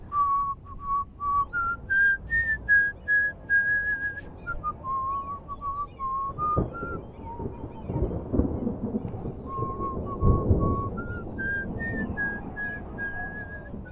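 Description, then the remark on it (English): A man whistles the slow, lilting tune of an old sea shanty, clear, as he heads outdoors into the fading light with the wind starting to blow, while low rumbling thunder and heavy weather noise build underneath in the second half. “He opened the door, grabbed the length of pipe used to prop it open in the summer months, then headed out into the fading light, all the while whistling the tune of an old sea shanty.”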